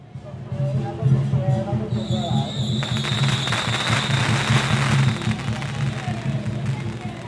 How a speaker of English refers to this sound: So I'm standing here right now in Yuanlin, a small town in Zhanghua County in, in central Taiwan. And I'm here today, and it's extremely loud and festive all around me because this huge procession is happening for Mazu